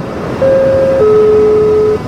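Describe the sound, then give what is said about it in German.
A car horn blares in one long held honk that drops slightly in pitch halfway through, standing out clearly over a steady wash of street noise on Gustav-Schickedanz-Straße, a small inner-city street in Fürth linking Bahnhofsplatz and Königsstraße. “Die kleine Straße liegt mitten in der Innenstadt und verbindet Bahnhofsplatz und Königsstraße.”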